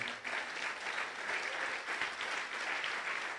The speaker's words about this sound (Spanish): levante un aplauso fuerte al Señor.